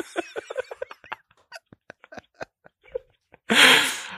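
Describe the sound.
A voice lets out a loud, harsh, distorted roar near the end, imitating the crackle of audio clipping, after a string of short clipped vocal bursts.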